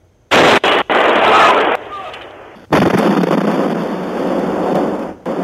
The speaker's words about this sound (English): Home security cameras capturing the first overnight explosion near Port Neches, just east of Houston.